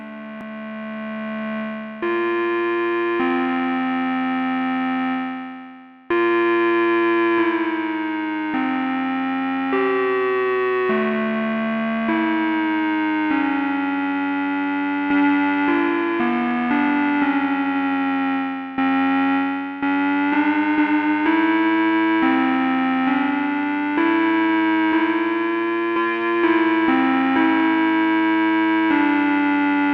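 A buzzy, harmonically rich synthesizer plays a continuous line of notes that slide into one another with portamento glides, holding a steady loudness for the whole stretch with no voices.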